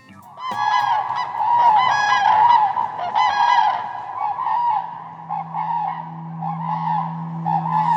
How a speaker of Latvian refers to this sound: Jā, tad eh, šodien ēters pilns ar putnu dziesmām būs.